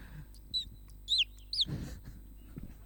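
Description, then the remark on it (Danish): A person whistles an imitation of a bird call into a microphone: three short, high chirps at roughly half-second intervals, followed by a brief low breathy rustle. “Jeg kan lyde som en fugl.”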